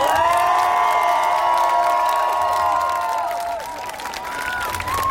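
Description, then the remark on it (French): A large crowd at a demonstration applauds and cheers steadily for several seconds for the people who organized it. Dense clapping sits under high whoops and shouted voices, loud throughout and easing only slightly toward the end. “Nous souhaitons avant tout remercier du fond du cœur les personnes, et vous, vous allez vraiment applaudir fortement les personnes qui ont donné du temps pour organiser cette manif.”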